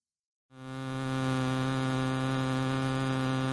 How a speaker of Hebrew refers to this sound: יהיה בעצם זמזום מעצבן כזה, שזה בעצם מיתרי הקול לבדם, ואז תשמעו איזשהו שינוי בזמן שמישהו מרכיב את אותה תושבת על מיתרי הקול כביכול, ואז ממש תשמעו את הסאונד הופך ל-אה, כן? תקשיבו לזה, זה די מגניב.